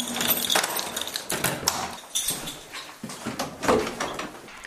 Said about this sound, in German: So, wir sind jetzt eine Treppe runtergegangen durch einen langen Kreuzgang und jetzt wird eine große, sehr alt aussehende Tür aufgeschlossen.